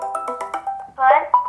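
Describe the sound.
A smartphone rings with an incoming Google Duo video call: a quick run of short, bright melodic tones followed by a longer sustained note, clear, with a voice briefly overlapping.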